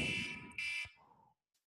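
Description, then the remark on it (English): A loud, harsh electronic buzzer blares in two close bursts with a brief break between them, then cuts off abruptly, leaving a faint fading tail and silence. “or the alarm went off. The big buzzer.”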